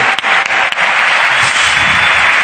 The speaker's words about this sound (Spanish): Vale, pues un aplauso para